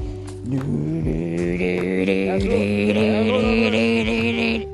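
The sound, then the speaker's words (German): A voice imitates the sound of bicycle tires when speeding up on a bicycle, a steady, buzzing hum that holds and wavers slightly for about five seconds, loud, with no other talking. “Oh, ich liebe diesen Sound von Reifen, wenn man auf dem Fahrrad Gas gibt.”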